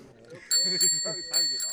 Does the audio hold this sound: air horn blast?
no